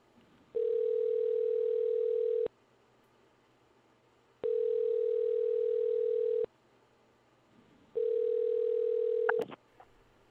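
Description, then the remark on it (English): A phone line ringing on an outgoing call to a local soup kitchen: three steady, two-second electronic tones separated by pauses, loud and clear with no talking, ending in a short click as the line picks up. “What's the nearest soup kitchen? Call option one.”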